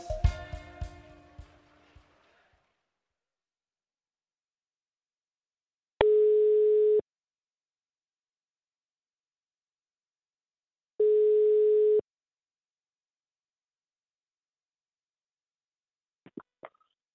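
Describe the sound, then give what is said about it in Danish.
A telephone ringback tone sounds twice as the Rød Aalborg radio show calls OB football coach Lars Fris. Each tone is a steady one-second hum separated by a long silent pause. A short burst of music comes at the start and a faint click near the end. “så jeg sætter lige en skiller på her, og så ringer vi op til Lars Fris og får og at høre, hvad han øh, tænker rent taktisk, der skal ske for, at OB de slår Viborg i morgen aften.”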